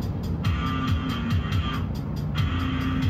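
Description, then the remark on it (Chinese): A heavy motorcycle fitted with a loudspeaker approaches, its engine rumbling loudly and steadily, the low growl carrying a regular pulsing beat that repeats about twice a second throughout. “车的声音，就像是那种类似野狗鸡类敌意的低鸣，又装了扬声器，在地面铺开。”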